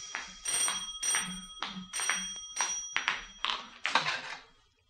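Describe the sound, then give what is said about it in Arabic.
A telephone bell rings in a rapid, steady series of bright metallic bursts, fairly loud with no voices over it, then stops and fades out; it rings in a furnished room in London at about six in the evening as someone enters to answer it. “نحن الآن حوالي السادسة مساء تدخل وولترز لترد على التليفون”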